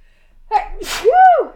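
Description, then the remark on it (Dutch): A single loud sneeze: a quick sharp inhale, a burst of hissing breath, then a drawn-out voiced 'choo' that rises and falls before trailing off. “Zo, gezondheid.”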